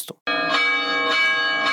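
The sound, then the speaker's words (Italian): Church bells in Poland ring out loudly in celebration of the election of a new Pope, a rich sustained metallic tone with fresh strikes swelling roughly every half second, heard alone after a brief soft sound at the start. “In Polonia, dove il 90% della popolazione è cattolica, le campane delle chiese risuonano a festa e la gente scende in strada per celebrare l'elezione del Papa”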